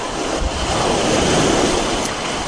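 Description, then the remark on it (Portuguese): Waves wash steadily against rocks by the shore, a continuous broad hiss of surf that swells slightly in the middle, with a light rumble of wind underneath and no voices. “Fica sentada numa rocha perto da água.”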